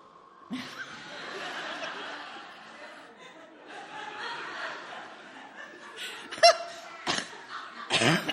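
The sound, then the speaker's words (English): A child mimics tiny snores with soft, breathy, nasal snorts, ending in a few sharper puffs, with a hint of giggling mixed in. “She just went to sleep and she was snoring little tiny child snores. What do those sound like?”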